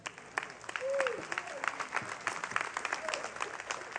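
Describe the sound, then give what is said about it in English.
A church audience breaks into steady, dense applause for the Lord during a sermon, filling the whole moment, with a few faint voices calling out over the clapping. “Give the Lord a good hand.”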